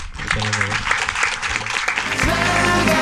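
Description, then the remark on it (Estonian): An audience breaks into steady, dense applause for the panelists at the end of a panel discussion, a continuous wash of clapping that holds at a fairly loud level throughout, with a low tonal hum rising underneath toward the end. “aga siin on meie aeg läbi saanud ja tahaksin teid tänada, paneliste ja palun siis neile üks suur aplaus.”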